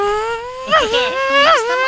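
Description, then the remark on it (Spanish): A voice imitates a Formula 1 race car engine, a sustained nasal buzzing drone that swoops up and down in pitch twice, like a car revving past. Fairly loud. “A ver, haz un ruido de Fórmula 1.”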